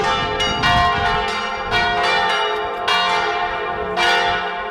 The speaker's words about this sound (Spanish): Eh, quise dejar esa escena porque no teníamos otro momento para grabar ese spot y bueno, empezaron a sonar las campanas de otra iglesia.